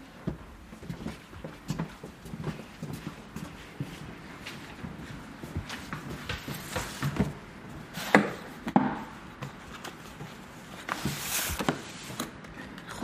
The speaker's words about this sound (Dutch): Maar ik eh, pak even een doos uit.